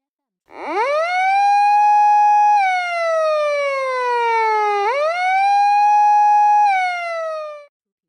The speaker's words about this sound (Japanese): これはパトカーのサイレンです。